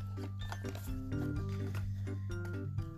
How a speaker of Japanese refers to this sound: はい、じゃあちょっと開けますね。テープで固定されてます。そう、箱に入ってんね、これね。箱ね。紙製の箱に入ってます。開ける。